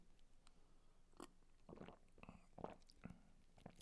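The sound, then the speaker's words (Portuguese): Someone takes a few quiet sips of water, with soft gulping and wet mouth sounds spaced out over a few seconds and no talking. “E agora vou beber um bocadinho de água porque fiquei com a garganta seca.”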